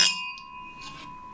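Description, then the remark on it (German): A single bright clink of wine glasses of Swiss white wine, a Montferrol from Vaud, touching in a toast, followed by a clear, sustained ring that slowly fades. It is moderately loud, with no talking. “deswegen hier ein Schweizer Weißwein, ein Montferrol aus dem Wattland. Zum Wohl. Zum Wohl. Zum Wohl.”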